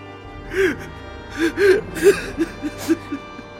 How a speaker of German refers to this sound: Nicht mehr weinen, Vater. Nicht mehr weinen.